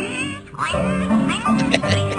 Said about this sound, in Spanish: quiere escuchar la parte donde se cae el, cochinito y empieza a llorar. Se oye, llorando, ya oír.